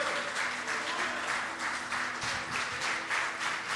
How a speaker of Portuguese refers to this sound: Você pode dar glória a Deus aí? Pode aplaudir bem forte a Jesus.